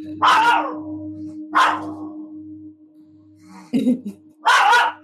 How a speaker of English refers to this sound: How did I forget this dog was in here again? this is only the second time this has happened. second time. Yeah. Why did I let him in here? He's been very nervous lately. Poor boy.